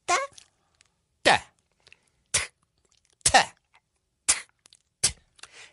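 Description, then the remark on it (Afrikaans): A voice makes a series of short, punchy beatbox bass-drum sounds with the mouth, about seven loud bursts spaced unevenly, with silence between them and no talking. “Daardie klank word die bas genoem.”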